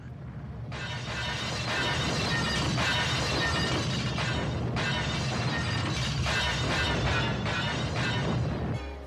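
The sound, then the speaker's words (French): A continuous, loud clatter of dishes smashing on a floor, played in a loop in a film scene where a truck collapses; crash after crash piling up for several seconds with sharp ceramic shards ringing through, then cutting off abruptly. “et il y a une scène aussi où un camion s'effondre et s'effondre sur le bruit de vaisselle qui s'écrase au sol en boucle.”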